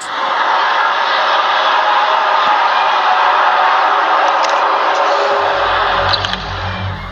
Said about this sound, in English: A scream, deeper than any known creature, louder than an earthquake, a deafening roar. Unrelenting, it shook the forest to its core. Again, another roar.